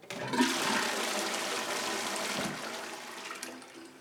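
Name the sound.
toilet flushing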